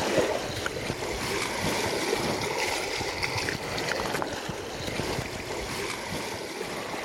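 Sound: river water splashing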